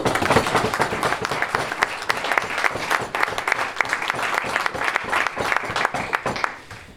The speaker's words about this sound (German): Applaus